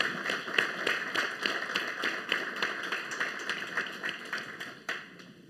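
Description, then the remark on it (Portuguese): A round of applause from a crowd for the speakers of a talk, dense overlapping claps at a steady, fairly loud level throughout, with no voices, tapering off slightly at the very end. “mas eu agora pedi uma salva de palmas a estes magníficos oradores.”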